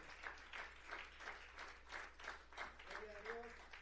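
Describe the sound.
An audience applauds steadily, many hands clapping in a dense, continuous wash with faint rhythmic pulses, while murmured voices rise briefly near the end.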